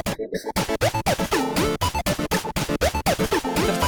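A dense, buzzy pocket synth riff chopped into a fast stutter-repeat effect with tremolo, its tones pulsing on and off in a steady rhythm. Loud, with no voices.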